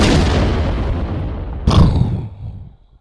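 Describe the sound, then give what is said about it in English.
A loud bomb explosion sound effect: a booming blast with a rumbling low tail, then a second sharp burst midway that rolls off and fades out. No voices. “Drop another for cultural purposes.”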